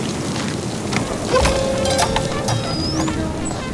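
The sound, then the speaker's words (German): Steady rain hisses throughout on a dark, rainy night in Gotham City, with a low rumble of thunder following lightning, swelling briefly partway through. No voices, just the continuous wash of a storm. “Ab und an zuckte ein Blitz durch die Wolken, erhellte Seitengassen und wurde von einem Donnergrollen verfolgt, das Fundamente erzittern ließ.”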